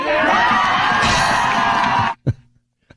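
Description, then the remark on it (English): Loud crowd cheering and whooping fills about two seconds, a dense roar of many voices cheering a speaker demanding climate action in Washington, D.C., then cuts off abruptly, leaving a couple of short isolated sounds in near silence. “I mean, the fact that she the cheering is so bad.”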